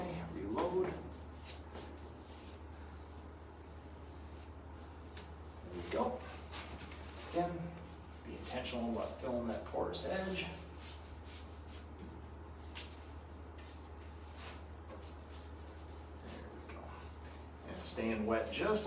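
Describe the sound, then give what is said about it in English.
Soft, scratchy swishes of a drying paintbrush's bristles dragged across a door panel up to the panel edge, coming in short irregular bursts over a steady low hum. “Being careful to run my bristles just up to the panel edge. Brush is getting dry.”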